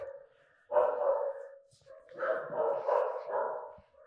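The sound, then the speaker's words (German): Dogs bark in short, overlapping bursts, several yaps and woofs tumbling together at moderate loudness, with a couple of brief pauses between the flurries. “Man hört die Hunde, man sieht die Katzen.”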